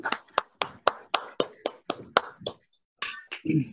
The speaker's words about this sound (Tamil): அதற்கு அவருக்கு நாம் அனைவருமே அன்மியூட் செய்து ஒரு பெருத்த கரகோஷம் கொடுக்கலாம்